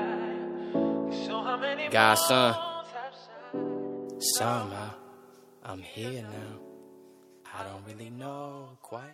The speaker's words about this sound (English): And what you just heard was a song by upcoming artists, an artist that I think people that is on the rise